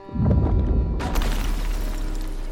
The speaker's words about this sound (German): Beim Scherenschnipsen entsteht eine extrem schnelle, beinahe explosionsartige Bewegung, die einen sehr lauten Knall und sogar einen kleinen Unterwasserblitz erzeugen kann.